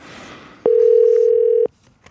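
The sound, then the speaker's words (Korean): A steady, mid-pitched telephone dial tone sounds for about one second as a Korean quiz show host dials a participant, unbroken and fairly loud, starting and stopping abruptly against a faint background hiss. “걸어봅니다.”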